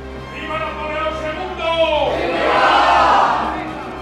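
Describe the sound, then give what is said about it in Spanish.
A battle cry from a legion of about 200 foreign carbonari and Spanish progressives, shouted at French artillerymen by the international bridge, many voices shouting together in a sustained roar that swells louder toward the middle before trailing off. “Habían pensado fascinar a los artilleros franceses con este grito, pero pronto huyeron a San Sebastián con sus banderas y enormes morriones.”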